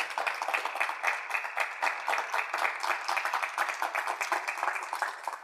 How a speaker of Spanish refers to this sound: Vamos a darle bien fuerte ese aplauso a Dios.